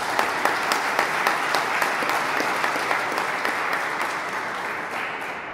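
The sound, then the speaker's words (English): An audience claps steadily for a speech by politician Jim Newberger, a dense wash of many hands with a few sharper individual claps standing out, holding at an even level and easing slightly toward the end. “I'm tempted to go on because I'm a politician and you're clapping, but I'm going to get off the stage.”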